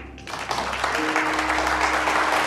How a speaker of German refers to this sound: Darf ich um eine Runde Applaus bitten?